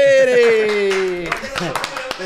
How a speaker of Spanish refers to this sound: Señoras y señores, estamos en vivo y a todo color. Yo voy a añadir los aplausos.